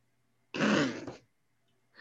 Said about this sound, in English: uh, did you just fart for the audio listener?